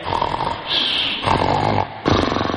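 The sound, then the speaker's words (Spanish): A voice does an exaggerated impression of an old man snoring at night while sleeping, loud, with rough rasping pulses in a few long drawn-out breaths, each one cutting off before the next begins. “Así como ronca tu viejo en la noche.”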